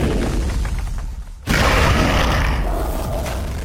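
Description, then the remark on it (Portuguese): A low rumble builds, then a big explosion bursts in with a sudden loud, full-spectrum blast that keeps roaring and crackling before slowly easing off. No one speaks. In a story, the explosion happens on Mars when the great Uglot, god of the Uglots, dies in war. “E quando ele faleceu, uma grande explosão tomou o lugar.”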